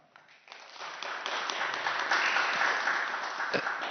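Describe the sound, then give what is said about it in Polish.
A crowd breaks into applause for the participants joining from Kluczbork and Bytom, the clapping building quickly from a few hands to a steady, dense patter that holds at a moderate level for several seconds. “Ale dla Was też brawa.”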